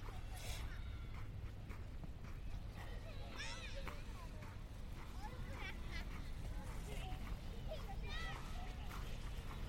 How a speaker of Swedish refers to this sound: Nu går jag förbi en stor, stor snövall och i den leker det en massa dagisbarn. Förskolebarn heter det, förlåt.